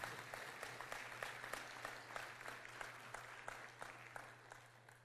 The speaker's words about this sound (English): Give her a better round of applause while I try and.